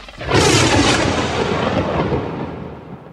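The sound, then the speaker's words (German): A loud, rumbling thunderclap bursts in sharply, then rolls on as a broad, low roar that slowly fades over a few seconds, with no voices present. “Hm, das war ein Blitz und ein Gedonner.”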